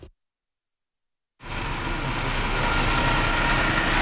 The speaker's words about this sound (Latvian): Pie Grebņevas robežu kontroles punkta valda rosība jo te gar abām šosies malām stāv kravas automašīnu, kas dodas uz Krieviju rinda.